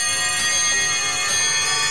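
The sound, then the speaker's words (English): Several alarm clocks ring at once in a loud, continuous metallic jangle, with clocks ticking and brief sharper clangs standing out every second or so. No one speaks. “Oh, the alarm bells have gone off.”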